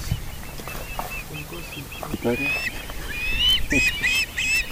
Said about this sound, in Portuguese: Assim, às primeiras horas da manhã e ao final da tarde, os biólogos observam a algazarra. São umas gralhas.